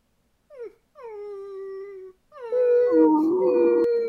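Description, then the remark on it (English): A person imitates a whining dog with a short yelp followed by long, rising, nasal whimpers that grow louder and overlap, sustained with no speech. “I can do a really good impression of a dog whining.”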